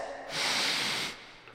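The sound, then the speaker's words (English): A single drawn-out sniff lasting under a second, a breathy hissing inhale through the nose as someone smells a Rowdy Mermaid Watermelon Bloom kombucha, with quiet room tone before and after and no talking. “I'm going to sniff them both, but Rowdy Mermaid will go down the hatch.”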